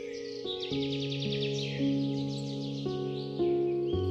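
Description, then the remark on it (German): Birds chirp on a sunny day in quick, high, repeated trills that run continuously, layered over soft, sustained musical chords that shift every second or so, with no one speaking. “Die Sonne scheint, die Vögel zwitschern.”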